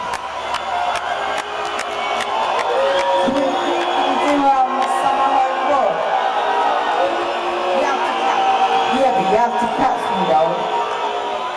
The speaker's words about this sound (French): Le public serbe est outré. Alors, il se met à siffler.